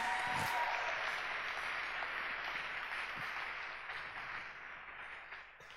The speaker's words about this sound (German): Jetzt euch vielen Dank, Applaus. Super gut gemacht.